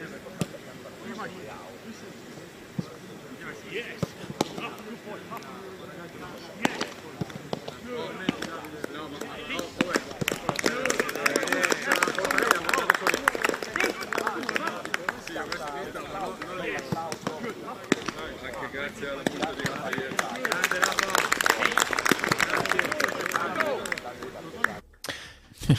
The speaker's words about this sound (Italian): Con un applauso hanno festeggiato grande, questo grande traguardo di questo ragazzo